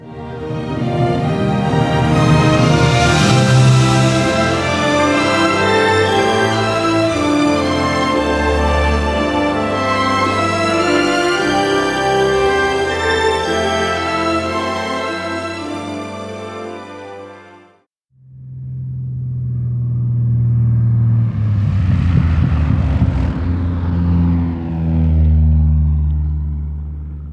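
Loud, full film soundtrack music with sustained, layered instrumental tones, briefly dropping to near silence partway through before swelling back in; no voices are heard.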